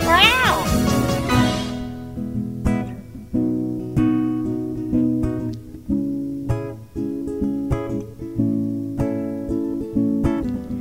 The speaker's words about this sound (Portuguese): Gente, para encerrar, hoje nós vamos colocar uma música muito legal que foi feita aqui na Mocidade. A música chama Livro Espírita e é essa aí que vocês vão começar a ouvir